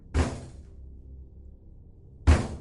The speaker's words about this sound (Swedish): När min mamma kom tillbaka till köket igen hörde hon knackningarna återkomma. Denna gång så kraftfulla att fönstren och väggarna skakade.